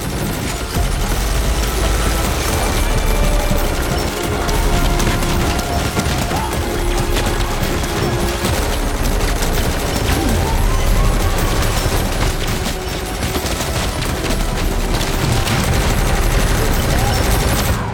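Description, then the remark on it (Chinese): Loud, sustained machine-gun fire from a drone strafing indiscriminately without pause, dense rapid bursts layered with metallic clatter and rumble, running steadily for the whole stretch with no clear voices above it. “小黑妹放出了无人机，不分敌我的扫射。”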